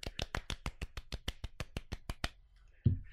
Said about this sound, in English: I think the Ford Mustang Mach-E and the Lucid Air get to share an award. they, they both they both get a clap.